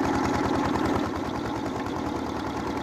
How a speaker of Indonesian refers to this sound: Adonannya sedikit berbeda. Persentase tanah kasarnya lebih banyak dan menggunakan traktor untuk mengaduk.